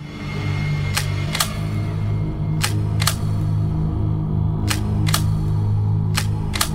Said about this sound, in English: Repeatedly, they kept cocking and uncocking the guns so that I could hear it.